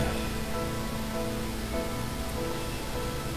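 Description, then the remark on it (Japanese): Steady rain falls outside in Fukuoka, Japan, on a cold day, a constant hiss of drops on a surface that stays even and fairly loud throughout, with no voices heard. “まああと今日ちょっとね福岡雨で寒いんですけど”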